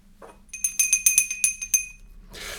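A small hand bell rings rapidly about eight times in a bright, clear tinkling burst lasting just over a second, marking a move to the next segment, followed by a short breathy rustle.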